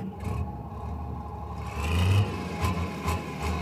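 A heavy excavator engine drones steadily at a meadow where a shopping centre is to be built, then revs up louder for a moment before settling into a rumbling idle with faint clattering. No voices are heard.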